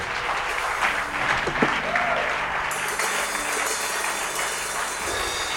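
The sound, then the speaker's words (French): A crowd applauds steadily for several seconds, dense overlapping clapping at an even loudness with a brief shout rising above it early on. “Acclamez très fort pour les seigneurs”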